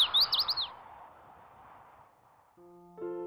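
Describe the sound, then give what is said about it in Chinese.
A hwamei thrush calls early in the morning, chirping in a quick burst of about six high, bright notes, then falls silent over a soft background hiss before gentle music comes in. “画眉鸟早早的起来叫寒号鸟：“哎，寒号鸟，快起来吧！”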